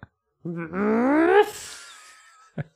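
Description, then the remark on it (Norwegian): A person imitates a rhinoceros with a single rising, throaty groan made partly through the nose that trails off into a breathy, nasal snort, followed by a brief click at the end. “Hva lyd lager neshorn? Tenker jeg. Ruff, var det en lite, nesten en liten bjeff?”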